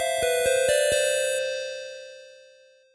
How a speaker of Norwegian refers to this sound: Nå ringer han Anders sikkert for å høre om vi er ferdig.